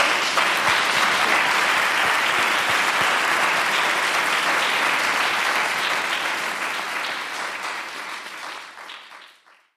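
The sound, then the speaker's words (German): Sustained applause from an audience of students, lecturers and professors in a large concert hall after a live interview, a dense wash of many hands clapping steadily at full strength, then gradually thinning and fading out over the last few seconds with no voices. “Ja, dann ein Applaus.”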